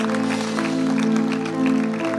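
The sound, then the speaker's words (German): A church audience claps steadily for a couple of seconds, a dense crackling wash of many hands giving God a round of applause to show thanks, while a held instrumental chord drones underneath. “Ey, lass uns Gott doch nochmal einen Applaus dafür geben.”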